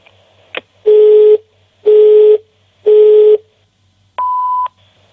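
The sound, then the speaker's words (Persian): Three loud, steady tones of an unanswered telephone call repeat at even intervals, each lasting about half a second, then a final higher electronic beep closes the sequence, clear with no voices. “الو دیگه کی به این تلفن جواب بده”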